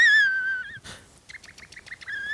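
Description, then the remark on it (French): A coastal shorebird calls with clear, high whistled notes: a long sustained whistle, then a quick run of short rhythmic piping notes, and another drawn-out whistle, loud with no voices. “C'est un oiseau, déjà. Un oiseau du littoral.”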